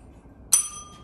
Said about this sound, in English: Ring the fucking bell.